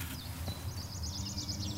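A small insect-eating songbird with a pointed beak sings a quick, rolling series of high warbled notes, fairly soft, in sunshine, over a low steady background rumble with no talking.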